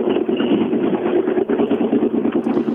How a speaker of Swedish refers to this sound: Jag ska se, nu gasar han på lite här, Häggen, under. Bara det inte är något trassel med bilen en av Sveriges mest aggressiva tomgångar är det här.